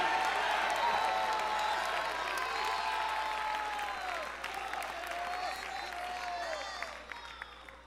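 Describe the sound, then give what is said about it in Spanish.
A church audience erupts in loud, sustained applause mixed with shouting and cheering voices giving a shout of praise, a dense roar of clapping and yells that holds steady before easing slightly toward the end. “¿Cuánto puede dar el mejor grito de alabanza?”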